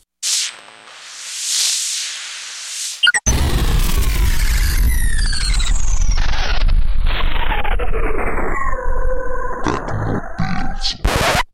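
The theme tune of Tecnopills, a Runtime Radio programme, opens with a breathy, swelling whoosh, then bursts into loud, dense, distorted electronic music with gliding downward pitch sweeps, playing without voices until it cuts off sharply.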